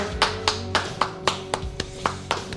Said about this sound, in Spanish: ¿Aplaudo yo solo que qué?